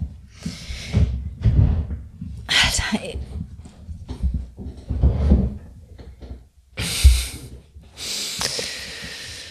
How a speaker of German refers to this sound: Ich muss mal kurz äh, den Stuhl verrücken und kurz.